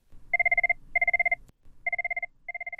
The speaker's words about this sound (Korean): 지난 20년간 들어온 전화 벨소리.